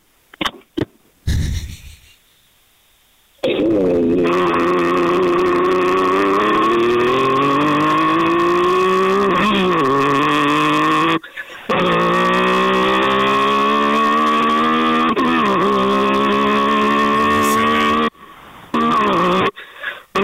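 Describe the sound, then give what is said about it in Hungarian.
A voice imitates a Porsche 911 engine: long, buzzing drones that climb steadily in pitch like gears revving up, broken by two short pauses, loud, with no talking. “Na, még egy, egy, egy, egy 911-es nagy porsét, akkor még meghallgatunk.”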